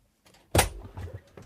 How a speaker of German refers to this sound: Da geht die Tür auf. Da geht die magische Tür. auf.